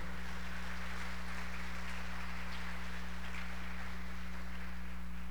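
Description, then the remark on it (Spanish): An audience applauds for the Lord in the evening, steadily for several seconds, a dense, even patter of many hands over a low electrical hum, with no one speaking. “¿Por qué no le dan un aplauso al Señor esta noche, por favor?”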